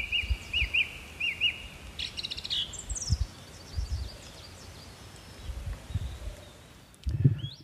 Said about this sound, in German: Da war jetzt die Singdrossel zu hören, Buchfink und Goldammer.